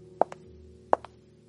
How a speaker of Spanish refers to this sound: Escuchas el repiqueteo de sus tacones en el suelo.